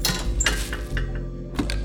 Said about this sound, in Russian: Закончил он и отправил ключ от транспорта, что вертел в пальцах, в мусорную корзину у барной стойки.